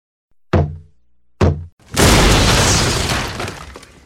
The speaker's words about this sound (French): Ah, tiens, je vous avais même pas entendu frapper.